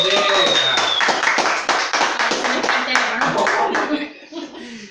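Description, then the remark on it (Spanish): A small group claps their hands in a quick, loud burst, with voices and some laughter mixed in underneath before the clapping fades out near the end. “Aplaudan chicos”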